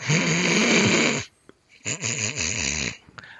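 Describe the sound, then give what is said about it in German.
A person loudly imitates snoring with two rough, rattling bursts: a long sustained one, a short pause, then a second wavering snore-like stretch. “Aber wenn sie schläft und wenn sie schnarcht, dann schnarcht sie nicht so.”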